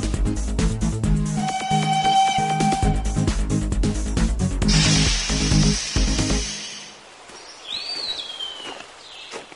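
train

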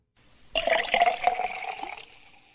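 toilet flushing

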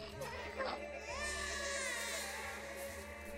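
newborn baby crying

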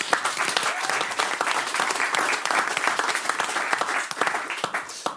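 big round of applause

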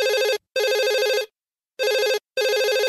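telephone ringing

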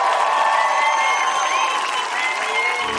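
audience applause and cheering

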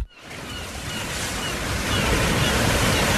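sea waves breaking

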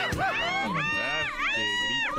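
crowd screaming

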